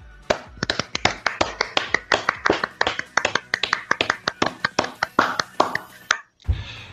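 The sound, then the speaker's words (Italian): Brisk hand clapping from one or a few people as applause for the viewers of a live broadcast, sharp claps in a quick, fairly steady rhythm for about six seconds, then stopping abruptly before a brief low rumble. “Quindi direi di fare un applauso ai nostri spettatori, dai.”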